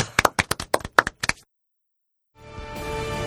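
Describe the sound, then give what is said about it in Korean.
A brief round of hand clapping closing a radio segment about video games and related films, roughly ten sharp, crisp claps at a quick, slightly uneven pace, stops abruptly; after a pause, steady music fades in. “어, 박수로서 이 시간 마무리해 보도록 하겠습니다.”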